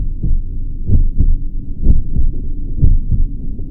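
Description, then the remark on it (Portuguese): A steady, muffled human heartbeat thumps in low, deep pulses, fairly loud, with a faint whooshing murmur between beats and no voices. “E em meio ao silêncio do oceano, escutamos agora apenas o nosso coração que bate, do exterior ao interior, da natureza a nós mesmos.”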